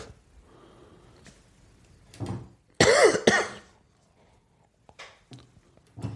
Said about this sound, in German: Lass ähm, auch nochmal husten.